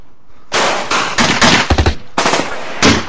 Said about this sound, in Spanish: El sonido de unos balazos y los gritos de pánico de los fiesteros interrumpieron la conversación y el trío se asustó.